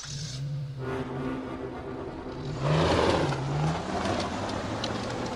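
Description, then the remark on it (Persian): A car engine revs and accelerates as the car starts moving and speeds up, its low tone rising and swelling louder midway, then settling into a steady drone with road noise, no voices present. “ماشین شروع به حرکت کرد گاز داد و سرعتش را زیاد کرد”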